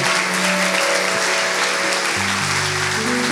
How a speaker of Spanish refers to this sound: Así que con un fuerte aplauso y con gratitud al Señor, pastor, por favor.